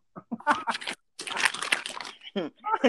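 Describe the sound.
Paper crinkles and rattles in a few rustling bursts as someone goes back through their notes, with a longer stretch of steady crumpling in the middle. A voice briefly joins near the end.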